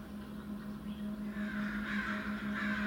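Several crows caw repeatedly at a distance near a forest edge, their harsh calls overlapping against a steady low hum of outdoor background noise.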